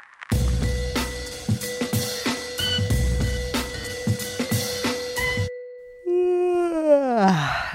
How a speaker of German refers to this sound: Du kannst keinen Podcast mit einem Gähner beginnen. Jetzt stell dir mal vor.